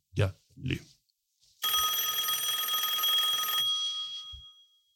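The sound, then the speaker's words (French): A telephone bell rings loudly for about two seconds, then fades away, preceded by two short low grunting sounds and followed by a soft thump. “Eh bien, ça sonne encore.”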